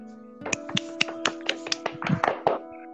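Sparse, light applause welcoming a guest: a handful of distinct claps in a loose, fairly quick rhythm, growing slightly denser toward the end, over a steady low hum with no talking.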